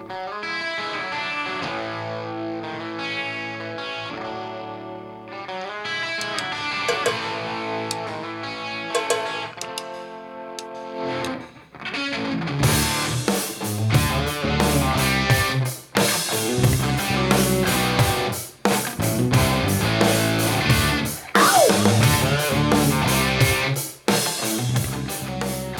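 A rock song with heavily distorted electric guitar opens on its own, then drums and bass crash in around midway for a loud, driving full-band groove. No vocals are heard.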